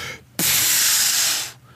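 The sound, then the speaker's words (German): A voice imitates a minke whale blowing spray as it surfaces about five meters beside a small fishing boat: one loud, breathy whoosh that bursts in abruptly, holds as a steady rushing hiss for about a second, then cuts off. “Und dann sitzen wir da so ein bisschen am Angeln und auf einmal fünf Meter neben uns macht's”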